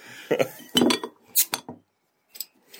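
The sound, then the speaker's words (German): Handling of a bottle of Hungarian beer: a few glassy clinks and knocks, then a short, sharp hiss as the cap comes off and the beer foams over, followed by quieter rustles and fizzing touches. No one speaks. “Sprudelt gleich heftig los.”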